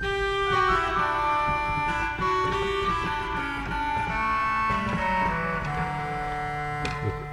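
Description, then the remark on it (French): A pipe organ's crumhorn stop plays a slow line of sustained, nasal, buzzy reed notes at a steady, fairly full volume, with no voices present. “Un chromorne, c'est un vieux jeu du Moyen Âge.”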